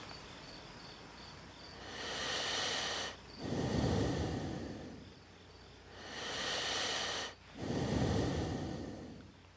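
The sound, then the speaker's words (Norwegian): Two slow, deep breaths, each a long airy inhale followed by a fuller, rushing exhale, with faint steady insect chirping in the background and no talking. “Og føle bare ett pust.”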